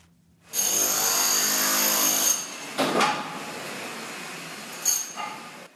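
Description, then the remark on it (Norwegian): Loud, steady whine of a drill for about two seconds, followed by bursts of mechanical grinding and clanking: construction work rebuilding the Italian town of L'Aquila after an earthquake, with drilling, cement trucks and excavators. “Dette er lyden av Lakila.”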